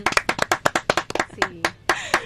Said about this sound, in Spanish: Así que quiero un aplauso para todos ustedes.